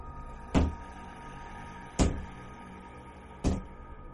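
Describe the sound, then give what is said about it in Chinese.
Three dull, heavy knocks on a wall, evenly spaced about a second and a half apart, each a deep thud with a short decay, over a quiet, steady background hum. “突然，又出现敲墙的声音。”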